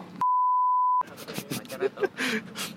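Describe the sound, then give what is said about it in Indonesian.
A single steady electronic beep from a phone notification, a message from the owner's girlfriend picked up while recording on a phone in a coffee shop, rings out clearly for just under a second, then gives way to people talking amid busy background chatter. “Jadi notif pacarnya ke detect di sini.”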